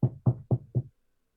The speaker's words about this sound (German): Also, ich klopfe zärtlich an die Tür, wenn wir an der Tür sind.